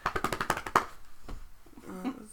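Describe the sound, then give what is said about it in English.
A quick burst of hand taps on a surface, about eight rapid strikes building to a louder final hit, followed by a faint voice murmuring. “Drum roll, please.”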